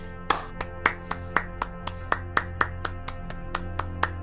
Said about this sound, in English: People people wanted us to clap at the end of every podcast.